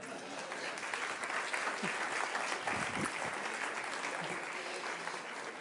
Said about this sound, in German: dicken Applaus, sehr mutig.